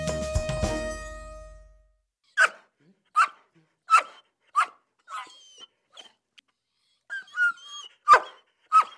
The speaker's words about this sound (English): That's the excited and playful bark of one of Lane County Sheriff's canine patrol dogs. The Sheriff's Office has three canine units, which it uses to help locate fleeing or hiding suspects and to provide additional safety to officers.